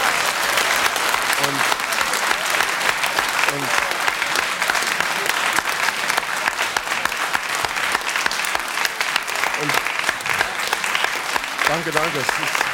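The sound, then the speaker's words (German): Sustained applause from a sizable audience, a dense, even clatter of clapping that fills the whole stretch, with a few faint voices surfacing briefly underneath. “Ist also eigentlich keinen Beifall wert.”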